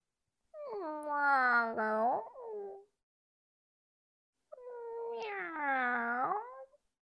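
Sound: cat meowing and caterwauling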